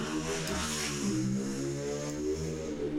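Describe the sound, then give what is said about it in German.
A heavy motorcycle engine rumbles steadily with a deep, throaty drone, fairly loud, its pitch shifting slightly as it drives past with no voices over it. “Ja, das war das Motorrad, ist so ein fettes Motorrad vorbeigefahren.”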